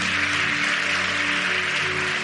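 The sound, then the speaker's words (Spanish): An audience applauds God after a prayer in the name of Jesus, in a dense, steady wash of clapping that holds at an even level throughout, with a faint sustained low tone humming underneath and no talking. “En el nombre de Jesús, ¿qué tal si le das otra vez un súper, súper, súper, súper aplauso a Dios?”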